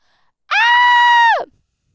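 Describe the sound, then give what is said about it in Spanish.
A person gives a single loud, sustained scream to test their microphone level, holding a steady pitch for about a second before dropping off abruptly into silence. “Oigan, me está marcando esta cosa que no me oigo. A ver, dejen grito.”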